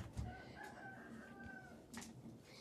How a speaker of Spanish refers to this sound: No me lo comeré yo, dijo la gallinita roja. Clo, clo.